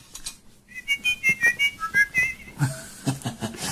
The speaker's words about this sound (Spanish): Sí, hermano, y silba a dos voces.